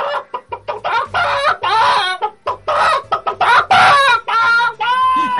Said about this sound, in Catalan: mira, mira, es la gallina